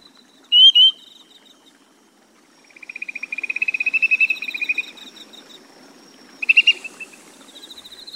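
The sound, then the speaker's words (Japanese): Grey-tailed tattler calls ring out clearly: a quick two-note whistle, then a long run of rapid, rising piping notes and a final short burst, over a soft insect-like background hum. “春の水田にすがすがしく秋の水辺にはしっとりと響く木足市議の澄んだ声夏の気配秋の情緒を感じさせてくれる季節の音風景です”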